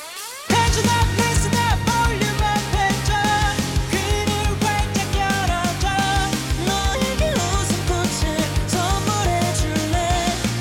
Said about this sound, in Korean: 자, 저희는요, 음, … 출연했던 드라마 보보경심녀 OST 중에서 한 곡 들려드릴게요.